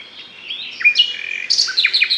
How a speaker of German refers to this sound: bekannt als gar, gar lieblicher Singvogel.